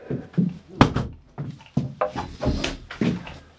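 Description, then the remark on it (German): A person walks across a wooden plank floor, a handful of heavy thudding footsteps with dull wooden knocks in an uneven walking rhythm, with no talking over them. “Du bist jetzt jemand, der ja. äh, auf Holz läuft. Ich bin jetzt einer, der einfach auf deinem Dielenboden, der hier drin ist, läuft”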